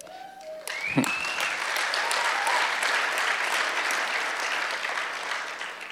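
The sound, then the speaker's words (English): An audience bursts into sustained applause, dense clapping going on steadily for several seconds, with a brief whoop or cheer rising near the start. “so glad you guys clapped.”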